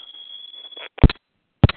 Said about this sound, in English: Somebody's phone needs to be on mute.